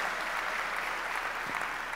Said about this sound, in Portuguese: Uma salva de palmas, glória a Deus.